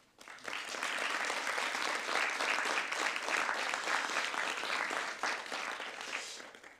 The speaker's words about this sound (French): Voilà, il faut évidemment remercier euh, pour leur constance et leur engagement permanent pour la poésie. Je vous demande même de les applaudir, hein, les techniciens de la Maison de la Poésie